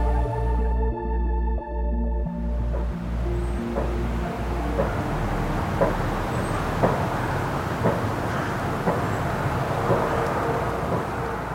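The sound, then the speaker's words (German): A low engine hum fades out at the start, giving way to a steady, broad whooshing roar from the many wind turbines around the village of Klicksbühl, with faint thuds and clicks scattered through it and no voices. “Hörst du das Geräusch? Also klingt nach Windrädern.”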